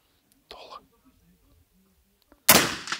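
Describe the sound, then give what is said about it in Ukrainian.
Rifle shots at shooting practice, with two more shots being fired: a softer burst early on, quiet murmured voices, then a loud, sharp crack near the end with a ringing tail and a second snap right after. “Ще два постріли.”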